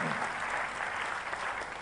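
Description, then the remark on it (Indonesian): An audience claps together during a sermon in a dense, steady burst of applause given to God that fills the space evenly, sustained and fairly loud, with no voices standing out. “Tepuk tangannya pula yang paling meriah buat Tuhan.”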